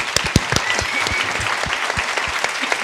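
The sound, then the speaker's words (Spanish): An audience applauds steadily, a dense wash of many hands clapping with a few sharper individual claps standing out, sustained and fairly loud for the whole stretch. “Ok, denle un aplauso fuerte, ¿no?”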